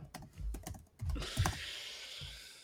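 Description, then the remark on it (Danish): Quick, irregular clicking of computer keys as someone types a note about sourdough, a short burst of keystrokes that trails off into a soft background hiss, with no one speaking. “okay, jeg skriver noget med surdej, som ikke er et råd.”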